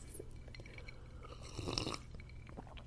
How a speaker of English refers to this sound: I'm like obnoxiously slurping to the mic. I'm totally keeping that in there.